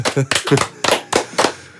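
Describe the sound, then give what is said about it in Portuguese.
Someone claps their hands about six times in quick succession, each clap a sharp, bright smack at a roughly steady pace, with a faint voice murmuring underneath the first few. “Pera aí que eu preciso aplaudir.”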